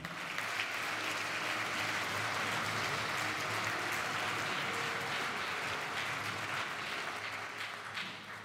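Steady audience applause at a round table of the Iliade colloquium, as Italian journalist Adriano Scianca is called onto the stage: a dense, even wash of many hands clapping at constant loudness with no voices rising above it.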